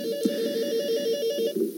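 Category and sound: household object, studio telephone ringing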